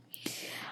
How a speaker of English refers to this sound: That's my dog snoring, by the way.